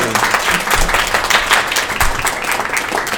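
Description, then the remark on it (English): A crowd at a RainFurrest event applauds steadily, many hands clapping in a dense, continuous patter with no voices over it, holding at a fairly loud level throughout. “Oh, the applause looks good.”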